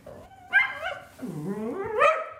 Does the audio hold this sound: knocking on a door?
no